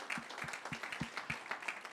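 A church audience applauds to greet the people watching from home: dense, steady clapping from many hands, with sharp individual claps popping out of a continuous wash of noise. No one speaks over it.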